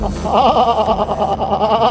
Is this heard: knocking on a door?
no